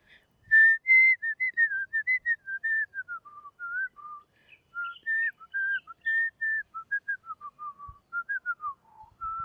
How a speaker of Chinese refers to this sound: 那口哨，口哨要录什么？录个丢丢档好了。